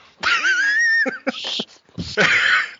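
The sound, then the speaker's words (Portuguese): A loud, strained shout rises and bends in pitch, then breaks into a few short, choppy vocal bursts and ends in another harsh, raspy yell, alone without normal speech. “depois do que o … gritou aí”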